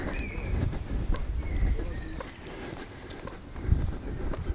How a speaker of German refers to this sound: man vielleicht ganz gut hören kann, dass meine Schuhe quietschen. Auch ein interessantes Podcaster-Problem, das so bisher noch nicht aufgetreten ist.